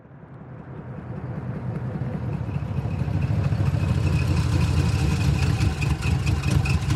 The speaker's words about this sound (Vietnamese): Một chiếc xe tải chở đầy cây gỗ dừng lại.